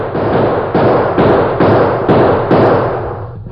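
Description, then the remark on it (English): A rapid volley of about six loud gunshots in a street shootout, as the sheriff and the Lone Ranger fire toward men across the street, at a fairly steady rhythm with booming echoes blending between them, fading out at the end. No one speaks. “At the same time, the sheriff began shooting.”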